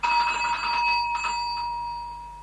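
A doorbell rings out loudly with one sharp, bright metallic tone that hangs in the air and slowly fades away. No voices are heard.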